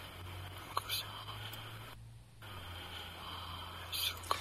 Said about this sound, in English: We can hear like weird breathing around it too. Like right there, you can hear the drawing of the breath and stuff, which is big.